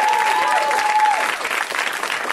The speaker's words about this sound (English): Let's hear for uh, put your hands together at the UCB Theater on a Tuesday night.